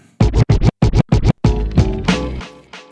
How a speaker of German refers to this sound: … ist der dritte Song und den hören wir uns jetzt an.